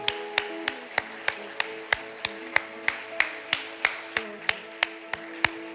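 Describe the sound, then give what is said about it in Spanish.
An audience at a church service claps together in a steady, even rhythm, roughly three claps per second, applauding the Lord for those who have accepted Him, with sustained musical tones humming underneath. No one speaks. “¿Cuántos dan un aplauso al Señor por quienes lo han aceptado?”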